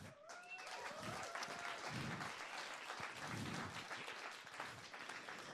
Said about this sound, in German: Und einen fetten Applaus. Come on!